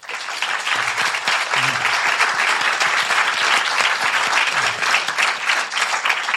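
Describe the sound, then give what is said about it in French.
An audience applauds steadily for several seconds, a dense, even wash of many hands clapping at a consistent loudness, with faint voices occasionally surfacing beneath it. “Voilà, et il est là avec nous, on peut l'applaudir.”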